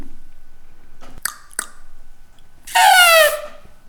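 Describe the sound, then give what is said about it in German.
A person imitates an elephant's trumpet with one loud, brassy, wavering blast about half a second long, preceded by two quick soft clicks, otherwise quiet. “Eindeutig einen Elefanten.”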